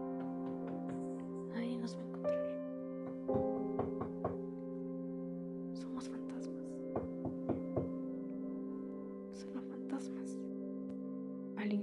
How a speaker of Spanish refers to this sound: Al día siguiente, se animaron a tocar la puerta del señor Fabricio.